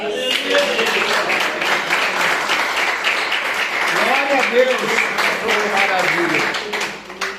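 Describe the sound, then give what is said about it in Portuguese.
A church audience applauds steadily throughout in praise of the Lord Jesus, a dense wash of clapping at even loudness, with scattered voices calling out over it midway before the sound tapers off at the end. “Eu agradeço a oportunidade e as palmas que louvo o Senhor Jesus.”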